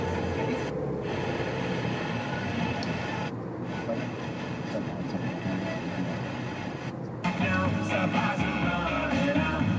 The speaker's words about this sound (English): Like walking in the rain and the snow and the static on 87.9. Eighty-eight one static.